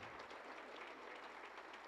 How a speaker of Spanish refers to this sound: ¿Pueden dar un aplauso al Señor? Amén.